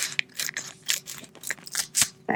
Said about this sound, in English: I don't want to bend them, so I use Audrey's fancy scissors. I cut.